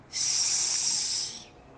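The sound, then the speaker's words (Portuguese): A single sustained hiss, sharp and airy, starting abruptly and holding steady for over a second before tapering away. It stands alone with no voices. “Cobra Norato, escuta só chiado.”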